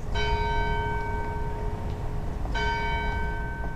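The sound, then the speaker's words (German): Two resonant strikes of a large bell in the tall tower of a 19th-century brick building in the city centre of Belfast, Northern Ireland, a few seconds apart, each leaving a long humming ring that fades over a steady low rumble of outdoor city noise. “Das Backsteingebäude aus dem 19. Jahrhundert mit dem hohen Glockenturm liegt mitten im Stadtzentrum.”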